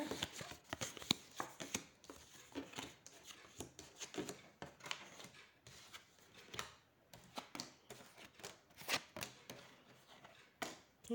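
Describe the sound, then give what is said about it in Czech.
Tarot cards being shuffled for a yearly reading for 2022, a steady run of soft papery riffles and slaps repeating irregularly for several seconds, with no one speaking. “A já už se dívám na vaši fotku, míchám u toho karty a podíváme se teda spolu, jak se bude barvit to období 2022.”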